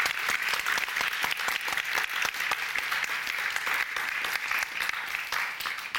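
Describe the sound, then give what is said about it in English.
A crowd claps steadily for several seconds, dense overlapping hand claps forming a continuous, fairly loud wash of applause with no voices rising above it. “Please give them a big round of applause.”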